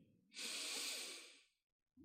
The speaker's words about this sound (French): Puis nous allons prendre une dernière grande respiration pour réoxygéner tout votre corps. Inspirez.